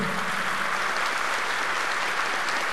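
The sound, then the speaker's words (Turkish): Sustained applause from a large audience, including some judges and prosecutors, filling a hall during a speech by President Erdoğan targeting Kılıçdaroğlu, steady and dense throughout with no pauses, no voices standing out above the clapping. “Konuşmasında Kılıçdaroğlu'nu hedef alırken de salonda alkış devam etti.”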